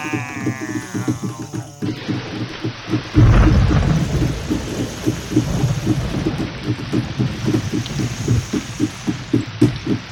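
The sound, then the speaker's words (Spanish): Steady rain hisses throughout, with a deep rumble of thunder rolling in early on. A brief bleating cry sounds at the very start, and no one speaks. “hicimos llover. La danza de la lluvia surte efecto. Nos reunimos y llueve.”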